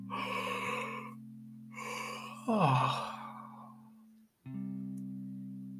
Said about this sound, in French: Vous pouvez étirer toutes les zones du corps qui demandent à l'être Peut-être euh, vous étirez les bras au-dessus de la tête en poussant un énorme bâillement.